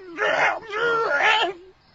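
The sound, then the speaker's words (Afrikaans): A human voice imitates a struggling crow's loud, strained last scream in two drawn-out, wailing bursts, forceful, fading off at the end. “Terwyl Jat haar in die sak om sy lyf prop, kry Katrina dit reg om 'n laaste harde skree uit te kry.”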